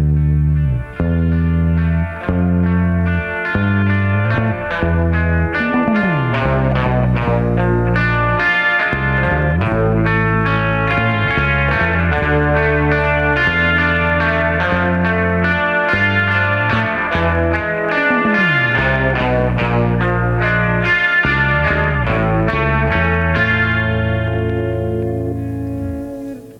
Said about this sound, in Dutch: de bas op spoor 5 plus de extra gitaar op spoor 4.